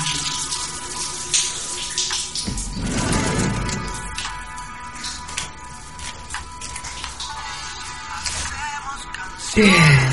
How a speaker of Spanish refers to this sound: Necesitaba esta ducha.